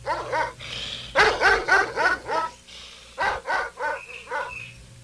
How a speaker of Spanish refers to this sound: Oiga, ya se oyen los gritos y los perros. Eso es señal de que ya se levantaron los venados.